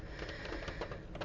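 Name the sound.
rain falling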